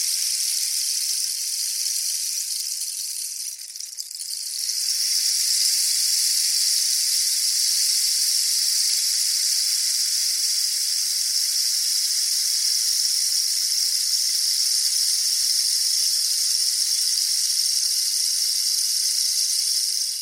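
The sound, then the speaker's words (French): A South American rainstick, a hollow cactus stem filled with small pebbles or sand, pours out a dense, steady rush of tiny falling pebbles, like rain. It dips briefly near the start, then flows on continuously with no voices. “C'est bien un bâton de pluie, un instrument d'Amérique du Sud fabriqué à partir d'une tige de cactus creuse remplie de petits cailloux ou de sable qui tombent.”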